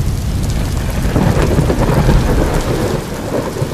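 Heavy rain pours down steadily in a dense, hissing wash, with low rumbling thunder rolling underneath throughout. The downpour is loud and close, with no voices.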